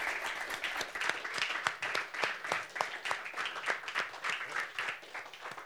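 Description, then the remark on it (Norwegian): An audience at Eilert Salong applauds steadily for two guests, many hands clapping in a dense, crackling patter that holds at an even level for several seconds without any talking. “Så syns jeg vi skal gi dem en, en god applaus.”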